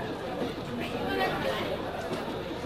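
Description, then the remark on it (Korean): Steady, dense crowd chatter fills a busy carriage of a moving train, many overlapping voices murmuring at moderate loudness with no single speaker standing out. “객실 안이 꽤나 시끄러웠습니다.”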